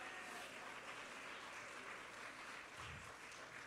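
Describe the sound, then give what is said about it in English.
An audience claps their hands in thanks to God in a loud, steady wash of overlapping claps that fills the whole stretch, dense and sustained without a clear beat, with a brief low rumble near the end. “Oh, I wish you'd just clap your hands before we go and say, I'm so thankful I have a God that has no limitations, a God that has all power, all authority, all knowing.”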